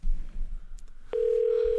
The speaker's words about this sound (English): Oh, he's ringing right now. Er. This is good. This is fun leaving this in. I like hearing the ringtone.